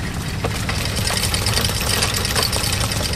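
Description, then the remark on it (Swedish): A coin minting press runs with a loud, steady mechanical roar, with irregular sharp clicks and clatters from newly minted two-peso coins for Argentina being ejected. No one speaks. “Här spottas det ut.”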